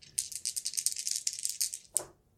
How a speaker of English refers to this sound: So I got an eight on the action die. I've got a three and a 10 on the challenge dice for a weak hit.